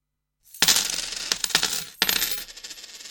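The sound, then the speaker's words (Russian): Coins clatter and jingle onto a hard surface in two bursts, a bright metallic cascade followed by a second spill that rattles and settles, fairly loud with no voices. “Этот звук призван напомнить вам, что вы можете поучаствовать в жизни проекта типа Типот своим рублем”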